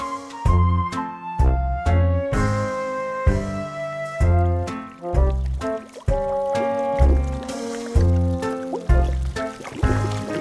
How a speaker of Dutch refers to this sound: Zeg, hoor je dat gebrubbel ook? Ja, kom maar dichter. Wow, niet te dicht. Dat is de rivier met kokend water.